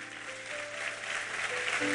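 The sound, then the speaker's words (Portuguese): A crowd claps steadily in a dense, sustained wash of applause that grows slightly louder, with faint held musical tones underneath. “Aplauda ele, porque ele é bom.”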